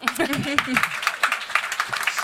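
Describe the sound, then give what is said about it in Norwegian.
An audience breaks into brief, scattered applause, a crowd of irregular claps at moderate volume, with a voice laughing or talking over the opening moments. “Og nå nikker alle, og det er sånn utrolig deilig bekreftelse som gjør at dere skal klappe.”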